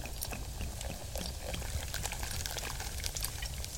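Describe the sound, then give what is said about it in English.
Fresh bubbling mineral water from a mountain spring pours steadily, a continuous splashing stream with crackling bubbles popping throughout, no voices. “Fresh bubbling mineral water from the mountain spring.”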